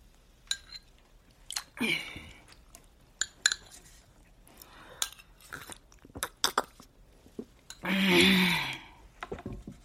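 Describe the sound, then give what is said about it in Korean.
Someone eats soup broth with a spoon, taking a few spoonfuls: light, irregular clinks against a bowl mixed with soft sipping and mouth sounds, then a louder, longer rattle as the spoon is set down near the end. “당신은 국물을 몇 번 떠먹더니 숟가락을 내려놓았다.”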